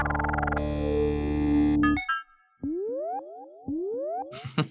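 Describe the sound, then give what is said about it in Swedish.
Vintage synthesizer intro: a thick, buzzy sustained chord, then a burst of bright tones and a run of repeated rising pitch-sweep blips with echo, loud, no voices. “Eh, gammal synt.”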